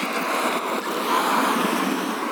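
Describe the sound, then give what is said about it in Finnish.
A car passes by, its steady rushing road noise swelling slightly toward the middle before holding level. No one speaks, and the whoosh fills the whole moment. “Ota tulee auto päälle.”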